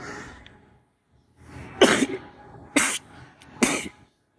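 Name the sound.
coughing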